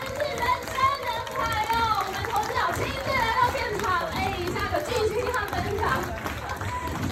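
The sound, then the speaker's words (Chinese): A crowd of about 1,300 people at a lecture in Taipei screams and cheers nonstop, many high-pitched voices overlapping into a dense, loud roar that holds steady for the whole stretch. “大家尖叫声在这！”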